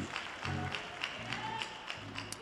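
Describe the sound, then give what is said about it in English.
An audience at a Pentecost Recognition Sunday service claps in steady unison as they take their seats, sharp rhythmic claps landing about three per second over a low, sustained musical backing. “Clap those hands as you take your seat.”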